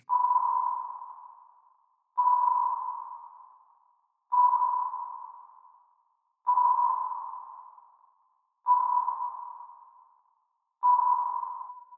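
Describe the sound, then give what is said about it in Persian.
A mid-pitched electronic beep repeats six times at a steady pace, each tone striking sharply and fading away before the next: the radio signal broadcast by Sputnik, an 83-kilogram ball-shaped Soviet satellite. No voices are heard. “ماهواره ساده که تنها یک کار انجام میداد و اون انتشار این موج بود.”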